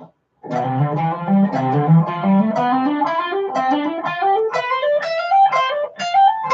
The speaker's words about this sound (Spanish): Este es el ejercicio número 3 del legato de hoy.